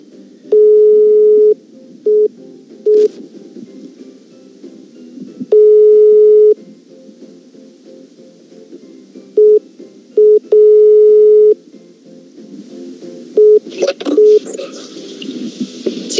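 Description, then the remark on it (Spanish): A telephone ringback tone of an outgoing call: steady, clear one-second tones repeating every few seconds, with shorter beeps between them and faint background murmur, ending in some clattering. “sale, vámonos a escuchar, a ver si nos contesta.”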